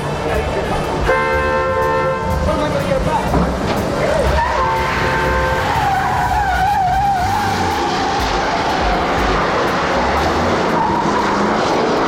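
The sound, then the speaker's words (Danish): A loud, chaotic car chase from the film The French Connection, set in rush-hour New York traffic among pedestrians: roaring engines and rumbling traffic, repeated blaring car horns, and tires squealing in wavering screeches, all dense throughout. “så foregik jagten i French Connection midt i myldretiden i New York med alt, hvad det indebar af trafik og fodgængere.”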